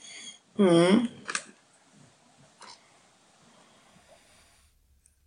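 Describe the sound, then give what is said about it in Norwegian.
A sleeping person lets out one short, wavering whistle-like squeak, fairly loud, followed by quiet breathing and faint rustling. “Noen som var plystra ja. i søvne.”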